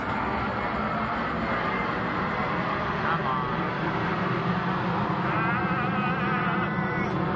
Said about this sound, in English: Both like relatively popular in the sense that like airplanes fly over. They're popular. They're so popular they're on the flight path of a major airport.